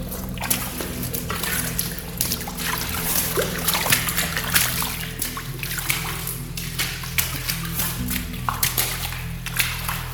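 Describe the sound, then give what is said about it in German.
Irregular sloshing splashes of water as feet wade through puddles at the lowest point of the Hessentunnel, where water collects, a steady busy rhythm of wet slaps over a low constant hum, with no talking. “Wir sind am tiefsten Punkt vom äh, Hessentunnel und hier sammelt sich natürlich das Wasser.”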